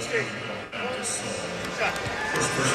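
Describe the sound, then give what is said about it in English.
The AT&T Center basketball arena during a lull in a Spurs playoff game, scattered individual conversations murmuring across the space over a steady crowd hum, with occasional sneaker squeaks and a faint ball bounce. “And all of a sudden, you can hear individual conversations here at the AT&T Center.”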